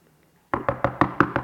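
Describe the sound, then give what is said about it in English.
Six quick, evenly spaced knocks on a wooden office door at an orphanage on Christmas Eve, made by the floor mother, fairly loud, starting abruptly after a brief near-silence, with no voices. “The floor mother of the orphanage came and knocked on his office, and he groaned with frustration because he couldn't get it done.”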